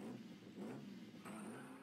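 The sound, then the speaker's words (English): A sports car engine revs loudly, its pitch climbing in two surging pushes with a harsh, sustained roar between them and no one talking. “Of course, he prefers the pearl white to the cherry red, but you can't fit three kids and a dog who's prone to car sickness in a sports car.”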